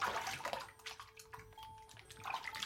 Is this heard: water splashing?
yes